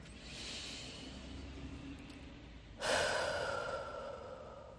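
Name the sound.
slow calm breathing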